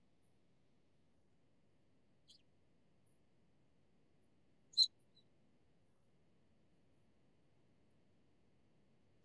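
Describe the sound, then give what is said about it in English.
Two brief, high chirps of a bird sound over a quiet, low hiss, the first faint and the second a couple of seconds later, sharper and louder, with silence otherwise. “and you've got birds in your background.”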